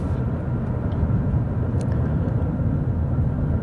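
Steady low rumble of road noise inside a moving car driving to work on an overcast, cool day, a constant droning hum with no voices, holding an even level throughout.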